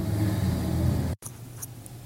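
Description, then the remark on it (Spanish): A car engine idles with a steady low rumble while waiting in a vaccination queue, cuts out abruptly for a split second, then resumes as a softer, quieter hum with no one talking. “Estoy en mi auto y no tengo que bajarme.”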